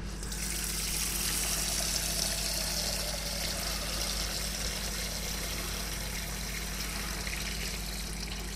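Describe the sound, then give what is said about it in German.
Water runs steadily from a tap into a cooking pot, filling it with water for spaghetti, a continuous gushing rush with a slight hollow ring that holds even for several seconds, with no talking. “Das andere, was wir brauchen, ist äh, Wasser für Spaghetti.”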